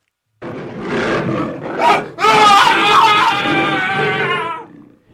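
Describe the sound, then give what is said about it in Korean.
A loud tiger roar: a rough, rising growl for about two seconds, then a long, powerful bellowing roar that holds steady before fading out. A tiger around midnight in Andong, Joseon-era Korea, seizing a man. “누군가가 놀라서 부르짖는 소리와 호랑이 울음소리에 노비들이 모두 두려워서 몸을 움츠리고 있었는데”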